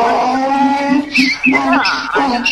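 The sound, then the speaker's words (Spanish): A human voice imitates a donkey's bray with a loud, drawn-out, strained call that wavers and breaks in pitch for a couple of seconds. “Como burros.”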